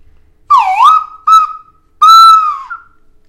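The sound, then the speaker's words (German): A short flute call of three bright notes: a swooping first tone, a brief middle blip, then a longer held note that dips at the end. Played clear, with no voices. “Bevor ich was zu den nächsten ähm, Wermut erzähle, kurz die Flöte der Aufforderung an alle Sounddesigner da draußen.”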